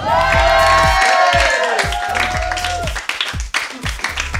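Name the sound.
audience applause and cheering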